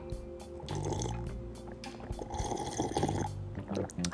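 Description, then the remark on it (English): Coconut water is poured into a glass: a steady, gurgling, splashing stream that runs for about four seconds with small bubbly surges, no voices over it. “Hold on, let me go ahead and just get a little bit more, just, just a touch of this uh, coconut water.”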